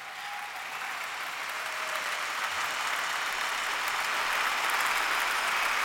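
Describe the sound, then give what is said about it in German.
Loud, sustained applause and a standing ovation from a large crowd at a club's annual general meeting, for interim coach Pal Dardai after President Kai Bernstein called him onto the stage. A dense steady roar of clapping that swells slightly and holds strong for several seconds with no talking. “Tosender Applaus für den Interimscoach.”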